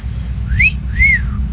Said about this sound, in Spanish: Pues el número uno va a ser chiflido.